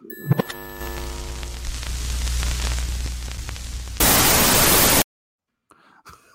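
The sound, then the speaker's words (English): TV static effect used to mark a lost video feed as a connection interruption: a few seconds of rumbling, buzzing noise with a low hum swell into a loud, flat burst of hissing static for about a second, then cut abruptly to near silence. “we've got the TV static effect”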